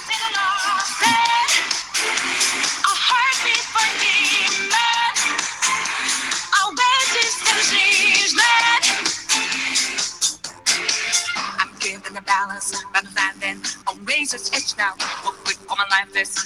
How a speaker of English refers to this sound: let me let me just give people a taste of what that sound for like 10 seconds because it's, it's really a good song